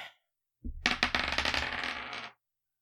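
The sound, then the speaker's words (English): Dice, rolled at a tabletop game to settle a judge's decision, clatter and tumble across a hard surface, a rapid run of sharp clicks and rattles lasting about two seconds, fairly loud, with no voices. “Well, I would, but the judge's decision at any tabletop space must also be subject to the vagaries of the dice.”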